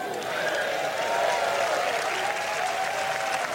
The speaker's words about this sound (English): it's the same audience of cheering fucking cows and go, ooh